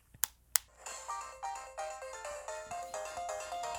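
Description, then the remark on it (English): Two sharp clicks, then a bright, chiming electronic game tune played directly from a Nintendo 3DS handheld console plays alone, its short plucky notes repeating in a steady bouncy rhythm, clear. “You like that authentic transition music?”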